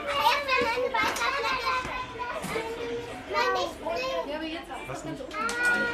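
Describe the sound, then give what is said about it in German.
Several children's high voices chatter and exclaim excitedly, with rising, pitched cries of wonder overlapping one another throughout amid lively background bustle, as the children, sitting with their parents, discover things under microscopes. “Immer wieder höre ich staunende Geräusche, wenn sie etwas im Mikroskop entdeckt haben.”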